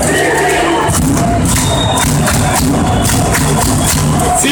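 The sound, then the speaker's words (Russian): Loud, dense roar of Sibir hockey fans cheering and shouting together at the start of the third period, with Sibir trailing 3-1 against Metallurg, sustained throughout, with a series of heavy thumping beats punching through the crowd noise. “Болельщики Сибири действительно поддерживали свою команду как могли.”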